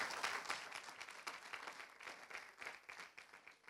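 An audience at a church sermon applauds together for the Holy Spirit, a dense wash of many hands clapping at steady volume from start to finish, with no voices breaking through.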